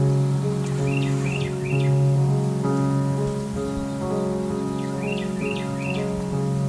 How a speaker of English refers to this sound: Sound of an unperplexed wren.